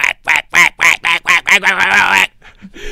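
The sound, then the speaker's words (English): A duck quacks loudly in a quick, rhythmic run of about half a dozen nasal calls, ending in one longer drawn-out quack before fading to near silence. “I just envision seeing like the ducks flying across my head with a flying V”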